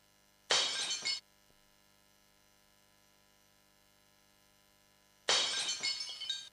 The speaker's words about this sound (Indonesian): Aduh, kamu ini. Makan tuh yang bener dong. Lihat piring mama, sampai pecah kan?